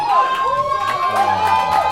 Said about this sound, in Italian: Eh, L'applauso non è per noi, ovviamente. Per noi. L'applauso, però vabbè.